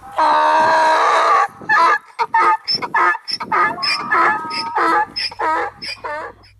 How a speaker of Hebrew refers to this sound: נעירה קטנה של חמור.